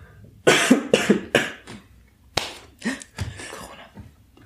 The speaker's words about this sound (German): ich muss husten.